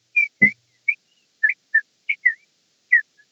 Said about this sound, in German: So, ist das jetzt ein echter Vogel oder habt ihr euren Vermieter dazu gekriegt, dass er auf der anderen Seite vor den Tablets steht und. das ist eine passende Atmosphäre. nee, das ist ein echter Vögel.